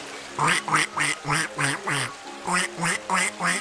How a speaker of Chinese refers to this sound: 哎，小鸭子你好啊，你也来这里旅行啦？